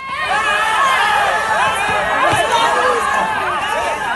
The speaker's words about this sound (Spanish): Estamos en un desalojo del Rec, un centro social ocupado de Barcelona, los antidisturbios están desplegando, un pequeño grupo de activistas protesta en la puerta, hay gritos, pero no hay demasiada tensión.